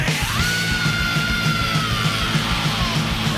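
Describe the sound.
A long, piercing thrash-metal scream holds one high pitch, then slides downward, soaring over loud, pounding heavy metal with fast, steady drumming and distorted guitars.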